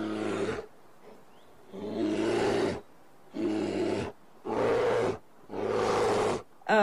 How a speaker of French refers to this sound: donc à la fois ours noir et grizzly, qui sont aussi dans la ville. Hein, euh, c'est fou.